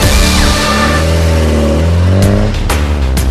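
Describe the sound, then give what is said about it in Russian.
A car engine revs loudly, its pitch climbing and dropping, with a few sharp bursts near the end as it surges again. No one speaks. “Что за тачка?”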